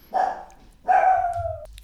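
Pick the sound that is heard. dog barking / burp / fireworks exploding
dog barking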